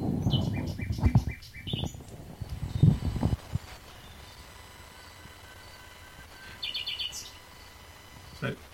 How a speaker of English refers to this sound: As its name would suggest, it's one of the very few birds that sing at night. And as such, it has the whole theatre, so to speak, to itself.